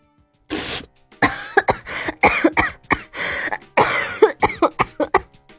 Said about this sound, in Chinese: 随后便被呛得剧烈的咳嗽了起来。